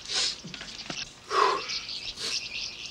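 Birds chirp in short, bright bursts, with a clearer whistled note in the middle, set against a steady airy hiss. No one speaks.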